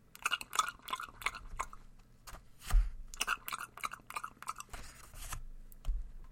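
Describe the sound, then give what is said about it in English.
Wet, smacking open-mouthed gum chewing by a girl, loud, with quick repeated clicks and squelches in bursts, broken by a few duller thumps of her pages being turned loudly, in a library. No one speaks. “And she wasn't one that would close her mouth while chewing gum. So she sat chewing gum and turning her pages pretty loudly.”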